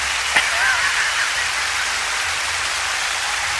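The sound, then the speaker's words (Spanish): A steady wash of applause, dense overlapping claps blending into a continuous hiss that holds at an even level throughout, with no voices over it. “Por los aplausos, porque vamos a la siguiente.”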